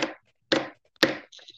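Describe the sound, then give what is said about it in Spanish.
Three sharp, evenly spaced taps of a pen striking a hard surface, each about half a second apart, fairly loud, followed by a faint light rattle at the end. “Esa, es una pluma, amigos, así que obviamente no suena así, pero le pega, le pega con una rama a, un tronco.”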